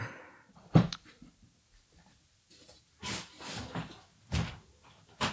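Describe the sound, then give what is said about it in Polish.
A window being shut: a sharp thud, then a few seconds later a scraping slide and another firm knock as it latches, with no talking. “Możesz zamknąć to okno, czemu ten pies tak szczeka?”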